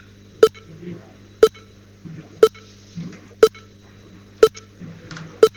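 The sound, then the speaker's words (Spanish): A steady series of six short, sharp electronic software progress beeps, about one per second, with a clicky, cash-register-like quality, sounding over a low constant hum with faint murmuring in between. “Esto suena como caja registradora, ¿eh?”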